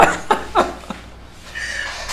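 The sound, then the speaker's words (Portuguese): A person coughs in a quick series of three or four short, rough bursts, followed by a moment of quiet and soft breathy background noise. “Pode tossir, não vai ser”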